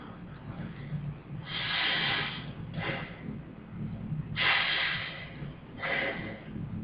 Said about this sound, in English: I've been practicing my breathing.